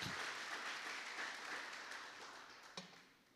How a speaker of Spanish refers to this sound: Dale, dale el aplauso al Señor, dale el aplauso, porque Cristo murió en la cruz del Calvario por ti.